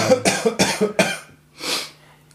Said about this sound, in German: Nein, weil ich gehustet habe. Du musst deinen dein Du musst Husten nicht verstecken,